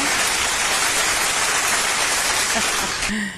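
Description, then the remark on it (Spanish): Sustained applause called for from the production, a dense, steady wash of clapping that holds at an even, fairly loud level for about three seconds before tapering off as a voice begins. “Producción, por favor, aplausos.”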